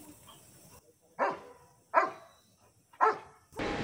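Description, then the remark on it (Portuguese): A search and rescue dog from Rio Grande do Sul, used to locate victims buried by floods and landslides, barks three times in a slow, evenly spaced series, each bark loud, with a brief burst of noise at the end and no talking. “Este cão do Rio Grande do Sul encontrou o ponto exato em que estavam pai e filho soterrados.”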